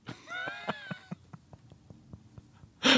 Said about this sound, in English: Well, we definitely got a cat in here, don't we? Without a doubt.